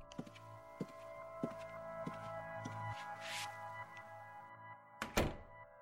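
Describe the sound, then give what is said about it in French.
A series of soft, evenly spaced thuds over a low hum, then a single loud, solid door closing near the end, with no voices. “Watson attendit que la porte fût close pour se tourner vers son compagnon.”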